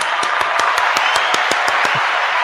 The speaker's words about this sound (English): Let me give you some applause for getting that right.